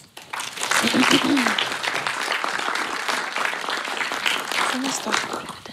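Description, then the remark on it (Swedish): Sustained audience applause as a guest is welcomed onto the stage, a dense steady patter of many hands clapping, with a few voices calling out faintly beneath it. “Välkommen, en applåd.”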